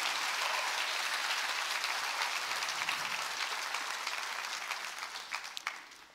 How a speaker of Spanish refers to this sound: Le das un aplauso bien fuerte al Rey. Aleluya.